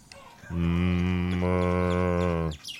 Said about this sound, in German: Das war im Übrigen die Gertrud gerade, die Mu gemacht hat.